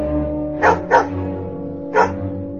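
A dog barks three times, two quick barks together and then a third after a short pause, each sharp, over a steady low droning background.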